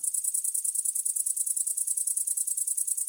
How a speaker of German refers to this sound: Der Gesang des grünen Heupferds, einer Heuschreckenart, die dank ihrer Größe bekannt ist. Die Tiere sind bis zu 5 cm lang, haben Flügel und sind grasgrün.